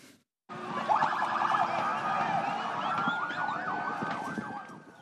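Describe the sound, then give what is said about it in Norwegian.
Ambulance sirens wail loudly and continuously after a brief silent moment, their rising and falling tones layered over a rumbling, busy street background, as ambulances arrive at the largest fireworks market in Mexico after explosions there. “Mens ambulanser ankommer fyrverkerimarkedet, løper folk i panikk bort fra stedet.”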